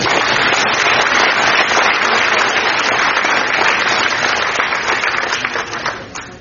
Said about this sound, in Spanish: ¡Aplausos por usted, por favor.